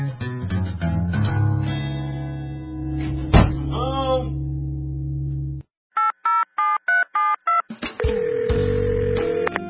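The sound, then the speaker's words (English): A rapid sequence of about seven short, evenly spaced touch-tone beeps from a phone keypad as someone dials to call their mom, heard clearly and alone, preceded by dense layered music-like tones and followed by more busy sound. “but I was calling my mom.”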